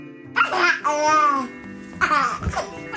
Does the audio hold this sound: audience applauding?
no